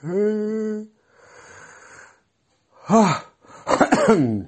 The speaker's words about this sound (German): Ich breche auch gleich hier ab, weil das laufende Gähnen, ne, das ist nicht so sexy.